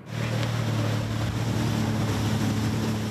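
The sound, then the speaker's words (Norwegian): A jet ski engine drones steadily on open water off Brevik, its low hum sustained, mixed with splashing, wind buffeting and broad watery rush throughout. No one speaks. “Hva slags reaksjon får man hvis man eh, kjører vannscooter ulovlig?”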